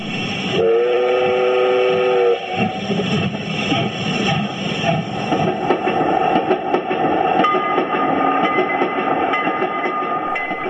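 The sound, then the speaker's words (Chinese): A train on the Alishan Forest Railway in Taiwan, a line built to carry timber down the mountain, rumbles and clatters steadily along the tracks, opening with a single sustained horn blast of about two seconds. The loud running noise continues throughout, with no voices. “一九一二年，为了运输木头的阿里山森林铁路完工，珍贵林木开始一批一批被运送下山。”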